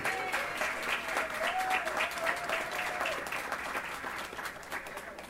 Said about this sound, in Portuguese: Uma salva de palmas também para o Carlão, que manda muito bem nesse pandeiro.